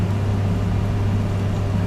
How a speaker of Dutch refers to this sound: een eh, halve liter ongeveer ga ik heel rustig schenken eh, in de pan. Ik kan het ook wel laten zien, maar het is niet zo boeiend. Kijk, nu heb ik dit. En dan ga ik gewoon heel voorzichtig dat ik niet eh, het water in de stoommand giet, zeg maar.